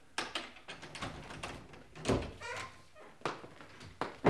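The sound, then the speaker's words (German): Bodies ram against a wooden door again and again, trying to force it in, each heavy thud landing in an uneven rhythm with rattling and scuffling between blows, fairly loud. “Wäre doch gelacht, Meister, wenn wir diese Tür nicht eindrücken könnten. Hau, ruck!”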